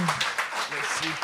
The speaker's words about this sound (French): hey, on les applaudit, c'est pas évident, là! Faites qu'une belle job, les boys!